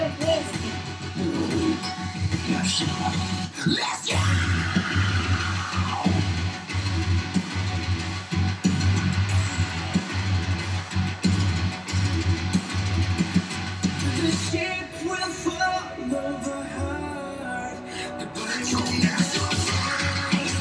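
A loud, dense rock song plays continuously, with heavy guitars, a steady low bass line and sung vocals, shifting to a brighter, busier section near the end.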